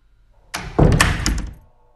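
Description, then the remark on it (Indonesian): A bathroom door slams shut hard at around 9 pm, with a loud, heavy thud, followed by a brief rattling reverberation that fades within a second, and a quiet background before and after. “Suara pintu yang tertutup dengan keras.”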